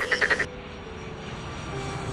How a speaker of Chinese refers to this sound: 瞧，天上飞过了一架飞机，哦。飞机的声音也被点点收进了口袋里了。